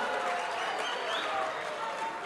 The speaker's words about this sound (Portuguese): Bem-vindo, mano. É, salve palmas. palma aí.